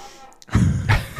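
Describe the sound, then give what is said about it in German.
An old 1970s swivel chair creaks twice in quick succession, fairly loud, each a low, groaning strain with a dull thump underneath. “Das ist so ein Drehstuhl aus den 70ern.”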